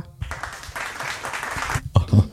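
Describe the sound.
A burst of recorded applause played from a mixing desk, a dense steady crackle of clapping lasting about a second and a half, cuts off abruptly, and then a voice briefly starts speaking.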